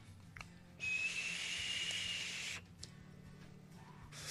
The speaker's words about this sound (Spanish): Este es un vaporizador. Sirve para vaporizar y nos ayuda a dejar de fumar a los que a los que fumamos y queremos dejar de fumar.